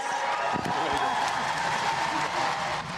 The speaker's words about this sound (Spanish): Aplausos a …. La verdad, increíble que le hayan dado este premio por su trayectoria.